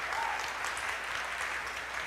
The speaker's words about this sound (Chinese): 今天是母亲节，所以我要邀请在座各位是母亲的，请你勇敢的站起来。我们要用最热烈的掌声来祝福，也感谢这些做妈妈的，